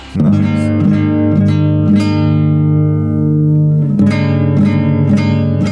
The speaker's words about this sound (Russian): Друзья, для того, чтобы вы поняли, сразу, так сказать, угадали эту мелодию с трех нот э, и без слов э, поняли, о чем пойдет э, речь в главной теме сегодняшнего выпуска, я дам аккорд, ёба!